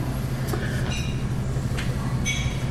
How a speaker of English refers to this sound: Night, he hops off the train, the air loss and gusts of steam, engine swirl.